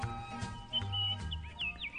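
Birds chirp and tweet in a quick series of high, sweeping whistles, some rising and falling in pitch, over a low, steady rumble of background noise with no voices.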